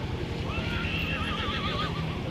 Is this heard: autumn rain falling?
no